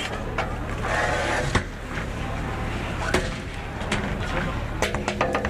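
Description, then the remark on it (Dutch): Aluminium flood barrier panels rattle and clank as they are loaded onto trucks in a warehouse, to be taken to the IJsselkade, with sharp metallic bangs breaking through a steady, echoing din and faint voices in the background. “Dat gerammel dat je hoort, dat zijn aluminium schotten die in het magazijn op vrachtwagens worden geladen.”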